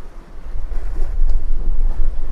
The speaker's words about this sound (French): Il y a le vent qui est bien. C'est agréable à barrer.